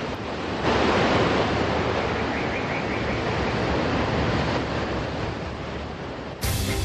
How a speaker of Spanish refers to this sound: Por lo pronto les dejo esta sonidos de playita para irnos ambientando en Miami.